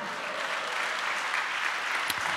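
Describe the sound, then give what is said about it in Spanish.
An audience claps together in applause to God, a steady, dense wash of applause that holds at an even level throughout, with no voices standing out above it. “¿Cuántos le dan un aplauso a Dios, hermano?”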